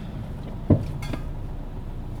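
A single heavy metallic clunk, abrupt, as a trailer's brake mechanism knocks together when braking, followed by a fainter knock, over a steady low rumble like a moving vehicle. Nobody speaks.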